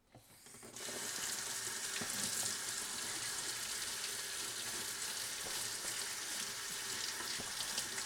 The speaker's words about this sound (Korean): 지금부터는 거의 파 씻는 소리만 날 거라서 어떻게 해야 될지 모르겠네. 되게 깨끗하게 씻어주세요.